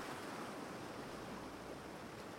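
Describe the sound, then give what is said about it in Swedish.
A steady, broad wash of ocean surf rolls on without pause, a soft continuous hiss of waves, with no voices present. “Havet. En mytomspunnen värld som ruvar på en dold hemlighet långt ner under ytan.”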